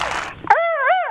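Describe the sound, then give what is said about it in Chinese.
A voice imitates a big rooster crowing, one of ten animal calls performed on request: a breathy rush, then one strained, sustained call with a wavering pitch that swells up near the end. It's fairly loud and stands alone, with no talk over it. “你家公鸡这么叫，哎带点的劲儿，后面带的像，后面像。”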